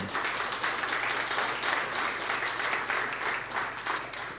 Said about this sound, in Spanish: Dámosles aplausos.